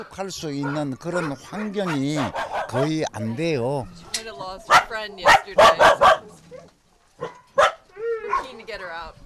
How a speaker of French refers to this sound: les enclos sont parfois remplis de plusieurs chiens en détresse